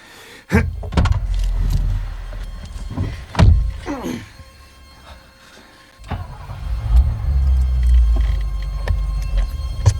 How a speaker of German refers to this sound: Und nun schließt die Tür. Wir fahren jetzt los.